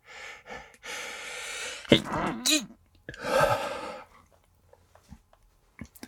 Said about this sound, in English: I'm gonna sneeze. Can I do a sneeze quietly? Can I? Can I do it? Wait, wait.